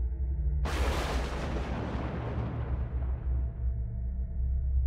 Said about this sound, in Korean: 그리고 곧이어 천둥번개가 치면서 사방이 번쩍했던 순간